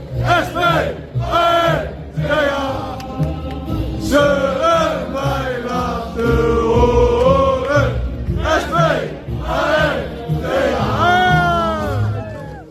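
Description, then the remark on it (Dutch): Sparta football supporters in Alkmaar sing together loudly after Tobias Lauritsen heads in the goal that puts Sparta 0-1 up, a massed chant of many voices with rising and falling melodic phrases and steady rhythmic beats underneath, continuous throughout. “Spartanen hebben reden tot zingen.”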